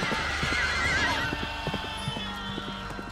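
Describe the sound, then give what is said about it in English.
A mounted policeman's horse, galloping through a confused crowd on a common, gives a high, wavering neigh early on while its hooves pound in a quick, uneven galloping rhythm that continues to the end over a low, steady rumble. “There were shrieks and shouts and suddenly a mounted policeman came galloping through the confusion with his hands clasped over his head, screaming.”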